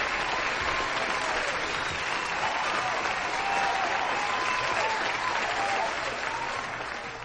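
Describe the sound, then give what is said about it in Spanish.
Sustained applause from a crowd, a dense steady clatter of many hands clapping at an even loudness for several seconds, easing slightly at the end, with no voices over it. “mi 2019 al que le voy a dedicar un aplauso de jubilazo.”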